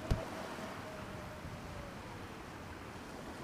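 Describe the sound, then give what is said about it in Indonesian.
Strong, blustery wind roars across the open sea in the late afternoon, a broad continuous rush with waves churning beneath it and a brief knock at the very start, no voices present. “Angin bertiup cukup kencang, sehingga awan pun kelihatannya seperti berlomba.”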